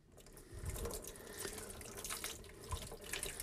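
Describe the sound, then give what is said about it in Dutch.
Water is poured steadily over a photographic plate in a continuous, fairly loud splashing stream with brief surges of spattering, stopping the development process so the plate is no longer light-sensitive. “Nu, door het gieten van dit water is dit proces onderbroken.”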